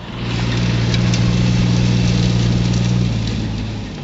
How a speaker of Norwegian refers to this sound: sky av grå jord virvler opp i lufta bak en traktor og blander seg med den skyfrie himmelen over Nantes Estate.